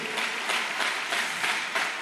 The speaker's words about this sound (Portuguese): Mas antes eu quero que você é, dê um aplauso para todos os líderes de célula, todos os supervisores, pastores, todos os anfitriões. Pode aplaudir bem forte, em nome de Jesus.